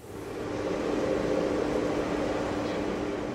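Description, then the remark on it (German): A steady, broad rushing howl like wind, with a strong hum in the low mids, rising in over the first half second and holding evenly with no voices: the JET experimental magnetic fusion reactor in England on 21 December 2021, confining hydrogen in a ring-shaped magnetic cage and heating it with microwaves. “Was klingt wie das Heulen des Windes, ist der Sound des bislang erfolgreichsten Experiments der Magnetfusion.”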